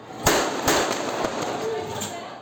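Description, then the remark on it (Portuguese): Four or five sharp gunshots crack out at irregular intervals, the first two loudest, over a constant wash of background noise and indistinct voices. The shots were filmed by an amateur camera operator in a hall during a Tarcísio de Freitas campaign event in the Paraisópolis community of São Paulo, Brazil. “Um cinegrafista amador que participava da cobertura do evento de campanha gravou o momento em que os tiros são disparados.”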